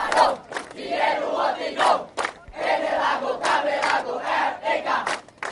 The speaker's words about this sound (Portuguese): As canções marcam os últimos minutos antes do tiro de partida. São 5 da manhã e o sol continua adormecido. Cerca de 10 mil atletas de 50 países partem em diferentes categorias.